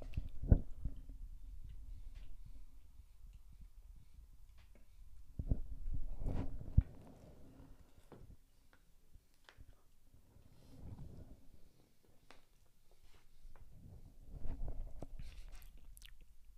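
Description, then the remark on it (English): Crunching bites into a caramel cookie crunch treat, followed by steady, moist chewing that swells in several louder bursts over the stretch, with no talking. “All right, caramel cookie crunch. One bite, several bites, several bites.”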